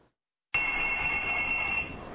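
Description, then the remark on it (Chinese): An emergency report phone at a Japanese fire department rings, cutting in abruptly after a short silence, a steady, bright high-pitched electronic tone held for over a second before easing slightly, with no voices. “报案电话响起，接起来又没人说话，消防人员只能干着急。”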